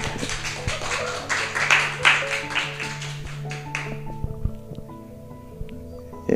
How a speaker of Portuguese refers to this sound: E acho que merece uma, uma salva de palmas aí.